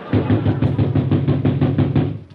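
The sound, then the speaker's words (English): Loud, rapid pounding on a door by police, about ten heavy knocks in a steady, insistent rhythm, with no voices over it. “Come on, open the door. I'll break it down.”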